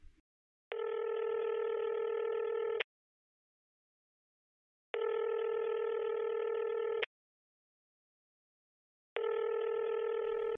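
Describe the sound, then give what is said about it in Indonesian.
A phone ringback tone sounds in three steady, evenly spaced bursts of about two seconds each, separated by silent pauses, with no voices, as a caller phones a friend. “aing telepon aja langsung kali ya”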